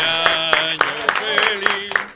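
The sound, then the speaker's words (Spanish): Steady rhythmic clapping for a birthday, about seven sharp claps at an even beat, with voices going on underneath throughout. “bueno, yo que le hemos aplauso a Tavo en el cumpleaños, Tavo.”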